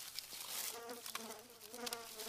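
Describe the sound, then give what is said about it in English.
Flies buzz steadily and fairly quietly amid leaves and blueberries, a wavering droning hum whose pitch shifts as they circle, with faint rustling underneath and no talking. “there's like flies and there's like leaves and blueberries everywhere and oh, just the noises, bro.”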